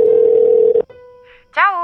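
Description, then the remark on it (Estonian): A steady, buzzy telephone ringback tone sounds loudly for under a second as a man calls someone's number, drops to a faint lingering hum, and then a person's voicemail greeting starts speaking. “Telefon kutsus kolm korda ja siis kuulis ta Kertu häält.”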